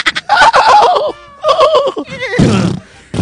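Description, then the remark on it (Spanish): A voice imitates a horse neighing: loud, quavering whinnies in two bursts, ending in a breathy snort-like blow. “y también el caballo bayo.”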